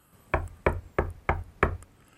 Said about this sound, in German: Wer klopft da?